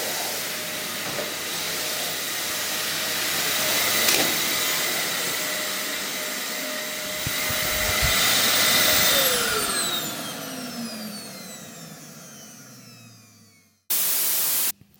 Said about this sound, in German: So, ich muss äh, weiter saugen.